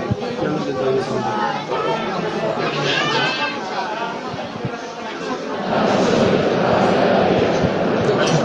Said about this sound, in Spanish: escucháis murmullo del interior de la iglesia, orando, y también el ruido que se nos cuela desde la puerta, desde el exterior de la puerta.